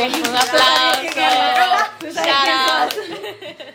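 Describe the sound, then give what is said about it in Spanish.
Hands clap in a quick, busy burst of applause while voices whoop and cheer over it, loud, fading slightly toward the end. “muy bien, Un aplauso.”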